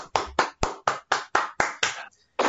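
Applause welcoming a guest, in a steady, even rhythm: about nine crisp, loud claps at regular intervals, then a brief pause before the clapping starts again. No one speaks.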